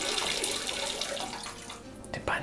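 Juice pours steadily into a cup, a continuous gurgling splash that holds for a couple of seconds and briefly trails off near the end.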